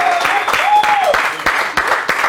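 A crowd applauds loudly, a dense and steady patter of many hands for about two seconds, with a brief rising-and-falling whistle or cheer cutting through near the start.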